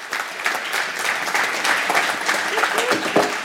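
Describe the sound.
A church service audience claps steadily and enthusiastically for the pastor's wife as she is invited up, a dense, continuous patter of many hands at an even loudness for several seconds, with some indistinct voices mixed in.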